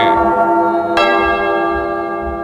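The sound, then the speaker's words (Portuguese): A church bell, rung by the sacristan, rings loud, its bright resonant tone sustaining and slowly fading, with a second strike about a second in that renews the shimmering peal. No one speaks. “De novo, sacristão, toca o sino, meu filho.”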